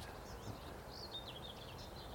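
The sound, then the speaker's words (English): A blackbird sings faintly, a run of soft warbling phrases over a quiet outdoor hush, with no one talking. “The blackbird.”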